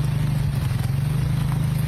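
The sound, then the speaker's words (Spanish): A motorcycle carrying a rider and a passenger rides through water, its engine droning steadily beneath a constant broad hiss of spray, with no voices. “Venimos en moto, dale despacio que me vas a mojar todo el culo.”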